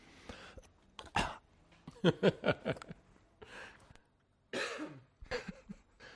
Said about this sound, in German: du fängst an rumzuhüsteln, also hm, super, klasse.